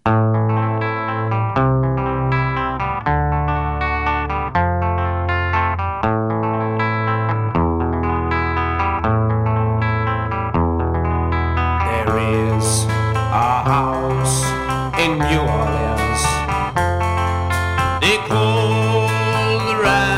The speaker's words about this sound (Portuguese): Esse arranjo encaixou muito o começo com a guitarra, aquele timbre quase limpo, aquele arpégio bacana.